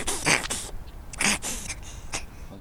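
A cat hacks and retches as if bringing up a hairball: a few short, raspy, breathy bursts in an uneven rhythm, fairly loud, with no talking.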